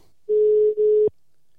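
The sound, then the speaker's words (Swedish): A single steady telephone ringing tone while calling a guest, a clear pure hum lasting just under a second with a tiny break midway, cut off by a sharp click as the line connects. No talking. “Då ska vi se hörni, vi tar och ringer upp eh, den första personen här då.”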